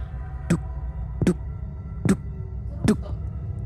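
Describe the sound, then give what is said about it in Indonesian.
Four heavy, evenly spaced thumps imitated by a voice, like the footsteps of someone walking on the fourth floor above, landing about once every second over a steady low hum, with no talking in between. “lalu tiba-tiba dari atas nih dari lantai empat hmm. kedengar ada seorang jalan.”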